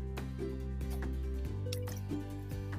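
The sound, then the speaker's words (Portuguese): Someone drinks water: a few wet sips and soft clicks of swallowing, spaced unevenly over a steady low hum, with no one speaking. “Escreve aí para mim enquanto eu tomo a minha água.”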